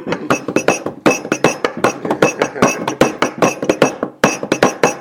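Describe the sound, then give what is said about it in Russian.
Church bells struck hard and fast by a bell ringer playing a driving punk rhythm, the blows hitting the skirt of the bells; dense overlapping metallic clangs with ringing tones, loud and steady throughout, with a brief pause near the end. “И вот я там херачу панкуху в колокола.”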